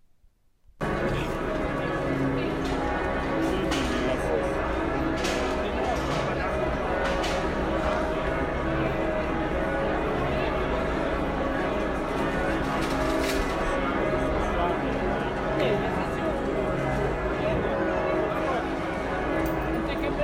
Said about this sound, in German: da waren die Glocken noch die ganze Zeit am Gang